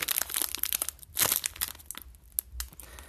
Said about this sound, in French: Donc en fait, aujourd'hui, on a des, petits bonbons Sweet 16, des petits verres là, surette. bien simple. Je sais juste pas si ça va bien sonner, mais ben, on va voir. Donc, euh, un petit sac en plastique. J'ouvre le paquet.